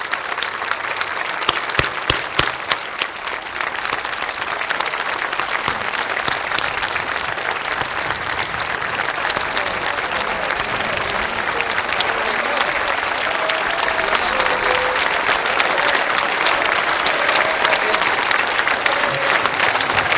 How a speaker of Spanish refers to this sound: Primero, allí en el ala izquierda están los excombatientes y los familiares de los excombatientes. Un aplauso enorme para todos ellos.